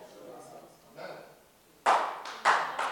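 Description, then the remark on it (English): A few sparse, scattered claps from an audience ring out, starting faintly and then a couple of louder, sharper bursts near the end, with a voice murmuring in the background. “And if you have not been faithful in that which belongs, you see that cheap clapping, it came again, you see.”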